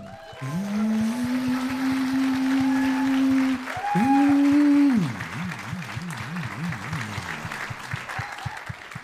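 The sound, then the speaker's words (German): An audience claps steadily for several seconds, a dense wash of applause, while a loud gliding electronic tone rises, holds, dips and warbles over it before the clapping fades slightly. “Einmal weniger Applaus.”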